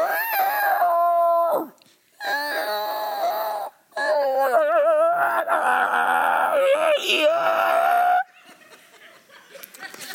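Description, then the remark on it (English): A man blowing a call device held in his mouth imitates a wounded rabbit's distress cry for coyote hunting: three loud, wavering squeals that wail and warble for a few seconds each, separated by short gaps, then fading into faint background noise. “I've never been coyote hunting, so I'm listening to this guy making a wounded rabbit sound.”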